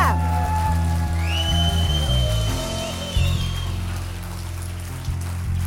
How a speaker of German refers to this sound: Geben wir unserem Jesus einen riesen Applaus heute Morgen.